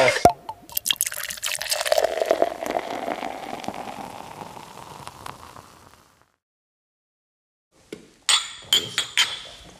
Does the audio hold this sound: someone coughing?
no